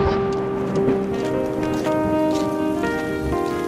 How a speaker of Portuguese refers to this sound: Eu estava chuviscando deixei a porcaria do guarda-chuva em casa.